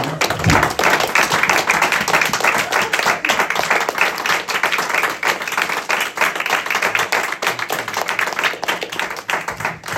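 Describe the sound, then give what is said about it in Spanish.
An audience applauds the Lord, clapping steadily for the full ten seconds, a dense wash of many hands at a constant loud level with no voices standing out. “Le vamos a dar un aplauso más al Señor.”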